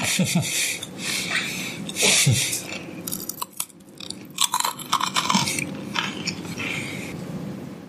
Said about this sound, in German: The Sound of Grissini.